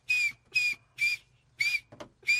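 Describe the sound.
A person whistles with their mouth in five short, even bursts at a steady rhythm, each a clear, fairly loud high tone, with a brief rustle between the fourth and fifth.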